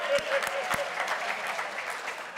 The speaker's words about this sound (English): The 9 a.m. was slow to giving me applause. You guys are a little bit better.